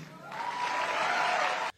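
A burst of crowd applause during a political candidate's speech, a dense wash of many hands clapping that swells quickly, holds steady and loud for over a second, then cuts off abruptly.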